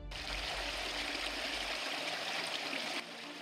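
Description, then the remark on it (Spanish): A waterfall roars steadily, a dense, continuous rush of water filling the whole clip at a loud, even level, with no voices present. “Al llegar a una cascada, el tercer mago ya la estaba esperando.”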